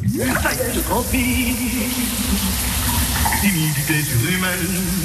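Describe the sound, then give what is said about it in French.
Shower water runs steadily in a bathroom, a continuous hiss that fills the whole clip, while a man under the shower faintly hums or murmurs underneath. “Ça y est, je transpire, boum, il est sous la douche.”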